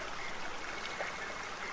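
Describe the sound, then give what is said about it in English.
Water flows steadily in a stream, a continuous rushing, babbling wash at an even loudness throughout, with no voices. “I'm going to take a few moments and I'm going to allow my voice to be quiet, allowing each of you to hear the sounds of nature, the sounds of water the beautiful sounds”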